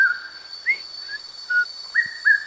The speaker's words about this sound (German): Das ist der sogenannte Einsiedlerkuckuck, okay. der ein in Afrika zu Tode nervt, weil er Tag und Nacht dieses Geräusch macht